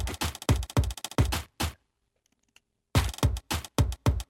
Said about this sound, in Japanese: でさらに同じく吉田さんのペットボトルの音